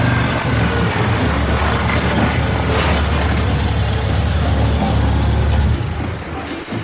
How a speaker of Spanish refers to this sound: ve llegar una furgoneta que aparca junto a él.